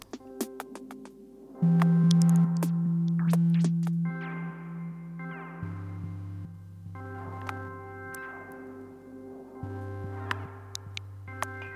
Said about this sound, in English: Um, it features some original music underneath by um, a musician called …. Um, I love the meandering sort mm-hmm. of feel of it.